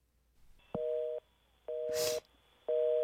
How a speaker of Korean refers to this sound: 받자마자 또 끊기는 전화. 시계를 보니 새벽 4시.